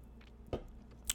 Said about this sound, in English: I'll take a sip of my liquids.